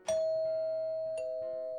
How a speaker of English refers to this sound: Huh. Doorbell. I'll get that.